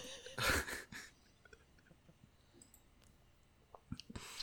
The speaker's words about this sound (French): Je suis obligé de reprendre une petite gorgée là parce qu'en fait, je suis pas sûr que ce soit vraiment de la bière.